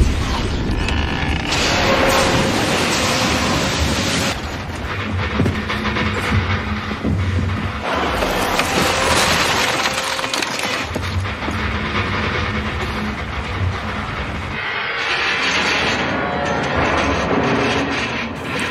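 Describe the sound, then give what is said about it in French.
The Titanic's steel hull striking an iceberg at least 15 metres high in the North Atlantic off Newfoundland, on a foggy night of calm water: loud, continuous metallic grinding, scraping, creaking and rumbling with no voices, swelling in several heavy surges before easing off. “Hormis le bruit sourd d'un choc de tôle contre de la glace, la collision va se produire dans le silence.”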